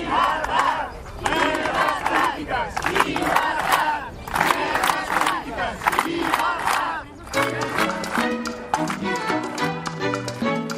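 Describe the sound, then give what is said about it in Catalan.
About a hundred people led by Torra and Torrent gather in front of the Parliament after the plenary session to demand the release of Carme Forcadell, shouting and chanting together in loud rhythmic bursts, voices overlapping in a steady, insistent cadence throughout. “Un cop acabat el ple, un centenar de persones encapçalades per Torra i Torrent es van concentrar davant del Parlament per demanar la llibertat de Carme Forcadell coincidint amb el dia del seu aniversari.”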